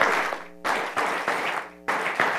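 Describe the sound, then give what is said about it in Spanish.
A crowd applauds steadily for a couple of seconds, a dense, hissy wash of clapping that swells in several surges. A faint sustained tone shows through in the brief lulls. “Y si alguien paga algo por mí, ya yo le estuviera dando un aplauso a aquel que pagó lo que yo tenía que pagar.”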